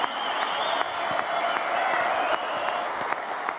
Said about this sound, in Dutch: We halen een van de grootste voetballers van de Nederlandse geschiedenis hier binnen in een volle doelen. Geeft u een hartelijk applaus voor Willem van Haligen!